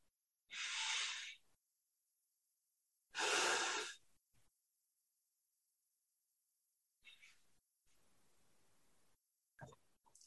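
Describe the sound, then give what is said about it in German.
Two long, deep breaths drawn in through the nose into the belly, each a loud airy rush separated by a few seconds of quiet, followed by softer faint rustling near the end. “Atme durch die Nase, in den Bauch, nach zwei, dreimal, ganz in deinem Tempo.”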